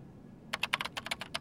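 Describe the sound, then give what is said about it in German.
Quick, light keystrokes clatter on a computer keyboard as someone types a command into a text box and presses Enter: about nine taps in an uneven burst after a brief quiet moment, with a low background hum and no voices. “Klein tippt Hüpf auf einem Bein und drückt Enter.”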